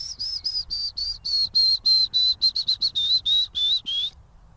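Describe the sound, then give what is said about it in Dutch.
Someone whistles a quick, even run of about fifteen high, pure notes, imitating a willow warbler to lure it into responding. The notes dip slightly at the end and stand out clearly over faint background rumble. “Ik ga nog één keer fluiten, kijken of die reageert.”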